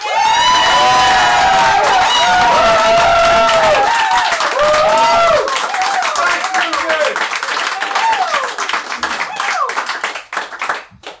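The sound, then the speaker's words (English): An audience claps and cheers loudly, with many overlapping whoops and rising-falling shouts in the first half, then steady dense clapping that thins out and fades toward the end. “I've got a bit of applause for Vincent Lynch.”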